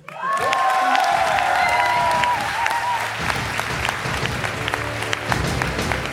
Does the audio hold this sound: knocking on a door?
no